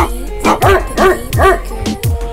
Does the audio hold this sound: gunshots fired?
no